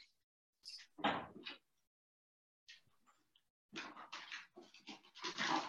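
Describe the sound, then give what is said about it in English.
Dogs pant in quick, breathy bursts, with a short quiet gap before a longer, louder stretch of rapid huffing near the end. No one speaks. “Excuse me, I have to get the dogs.”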